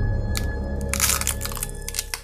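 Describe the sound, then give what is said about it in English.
A neck-twisting pop rendered as crunchy, cracking bursts: a short crack, then a louder sustained crunch, followed by two sharper snaps, all over a steady low hum with no talking. “ghostly hands wrapped around her head and twisted it so hard that she heard a pop.”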